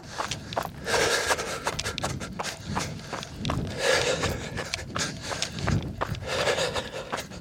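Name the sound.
running footsteps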